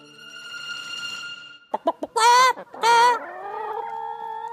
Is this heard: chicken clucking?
yes